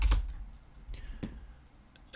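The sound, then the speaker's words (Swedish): A few sparse, quiet clicks and taps on a computer keyboard, irregularly spaced with short pauses between them, with no talking, as a person searches online for "Scottish competition". “Och det bör ju kunna göras med en enkel wiki-klick på skotsk tävling.”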